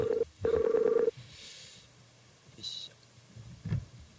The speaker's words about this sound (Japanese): ちょっと電話をかけてみましょう